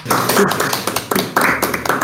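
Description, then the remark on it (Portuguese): An audience claps, many hands together, making a dense, crackling patter of applause that stays steady and fairly loud throughout the short burst, with no speech, applauding the introduction of a team member. “Palmas, por favor.”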